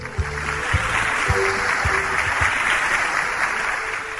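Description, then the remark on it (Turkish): A crowd claps steadily for about four seconds after a correct answer in a children's quiz, a dense patter of many hands at an even loudness, with a few rhythmic low thumps early on and no talking. “O zaman alkışlayalım.”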